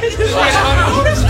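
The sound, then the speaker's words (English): Several voices chatter and overlap at once, a lively hubbub of friends talking over each other, steady and fairly loud throughout the short moment. “This is the sound of your mates being mates.”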